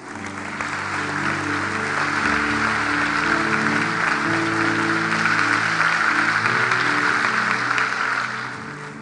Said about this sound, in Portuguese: Vamos dar um aplauso ao Senhor por isso.